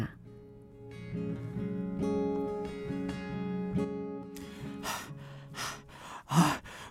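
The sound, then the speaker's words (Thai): A long, voiced gasping sound gives way to several quick, breathy pants in a rapid rhythm, fairly loud, from a sweat-drenched, dishevelled person out of breath from running. “เหงื่อท่วมตัว ผมเผ้ายุ่งเหยิง หอบฮักฮักเพราะว่าวิ่งมา”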